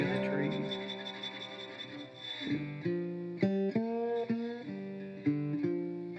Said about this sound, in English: Here comes the train, see? yeah. We'll wait that train out.